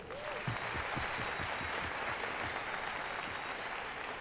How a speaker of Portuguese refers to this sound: Let's give Jesus a hand of praise. Vamos dar a Jesus uma salva de palmas.